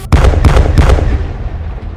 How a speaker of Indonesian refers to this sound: Tiga ledakan terjadi persis di tengah pasukanku.